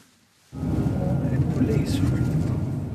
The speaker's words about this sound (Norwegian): Bilen kjører forbi stedet der firebarnsfaren Ahmed Hadros ble funnet med flere skudd i kroppen.